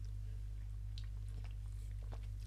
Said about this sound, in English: Um, just have a sip of beer.